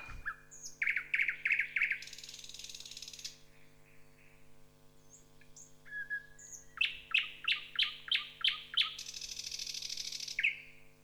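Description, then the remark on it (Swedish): A nightingale sings loudly in two bursts, each a rapid series of sharp, choppy repeated notes ending in a harsh buzzing rattle, with a steady low hum beneath. “Jag pratar om näktergal.”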